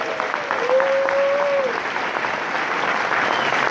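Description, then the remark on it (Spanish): Sustained audience applause, a dense steady wash of clapping at a fairly loud level throughout, with a brief rising whistle-like tone cutting through early on. “Un aplauso más fuerte para...”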